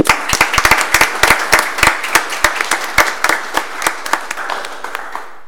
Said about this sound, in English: So, a round of applause, please, for all of those mentioned today.